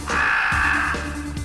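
A crow caws several times in quick succession, harsh and raspy, each call fairly loud, with no voices around it.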